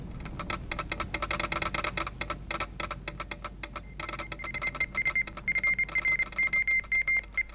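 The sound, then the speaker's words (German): A radio message from a motor yacht calls the coast station at Land's End in Cornwall, England: rapid mechanical clicking, like a telegraph key being tapped, runs throughout, then a steady high beeping tone keys on and off in short and long bursts, Morse code style. No voices. “Ich kenne sowohl das Morse-Alphabet als auch die gebräuchlichen Wellenlängen.”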